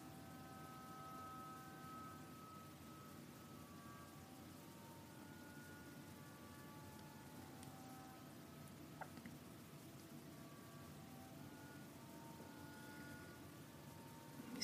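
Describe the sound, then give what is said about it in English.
A quiet, steady trickle of stream water running over rocks, a continuous soft babbling wash that stays even throughout with no voices. “The sound water makes as it's trickling over rocks.”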